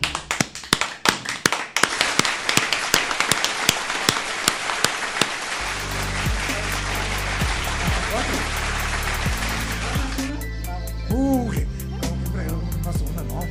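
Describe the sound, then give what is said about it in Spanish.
A few people clap at the close of the radio program Derecho a Réplica, beginning with sharp, separate claps that quickly thicken into brief steady applause; after about five seconds a musical jingle takes over. “Aplaudimos.”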